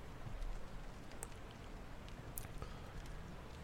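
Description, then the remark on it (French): Steady rain falls in a dense, even hiss, with a few sharper drops pattering now and then. No voices, just the continuous wash of rainfall. “porte de l'auberge s'ouvre et apparaît une belle hermine toute blanche qui est venue se protéger de la pluie.”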